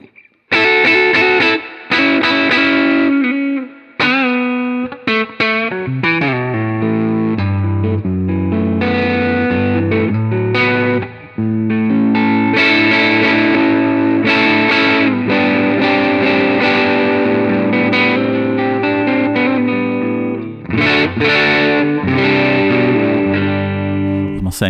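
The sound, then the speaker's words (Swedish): A distorted electric guitar on its neck pickup plays loud, warm riffs and sustained chords for nearly the whole stretch, with only a few brief pauses between phrases and no talking. “Och sen så eh, halsmick.”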